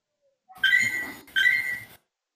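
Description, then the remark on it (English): Two fairly loud, high-pitched beeps in quick succession, each lasting about half a second with a slight upward glide, with no talking. “What is that yes. beeping sound?”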